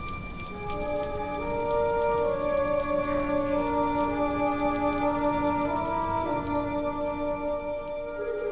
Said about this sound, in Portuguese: uma chuva fina cai lá fora, molhando todos aqueles que esqueceram de trazer um guarda-chuva enquanto caminhavam pelas amplas calçadas da cidade.